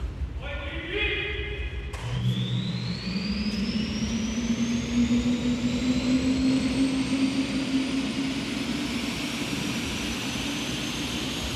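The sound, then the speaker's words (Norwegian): A fighter jet's ground starter unit roars, supplying power and cooling so the aircraft's systems can be tested while the jet's own engine is not started, its turbine whine climbing steadily in pitch over a loud, continuous rumble after an abrupt start. “Eh, det er jo en eh, startmotor. Vi starta ikke opp selve motoren på flyet nå.”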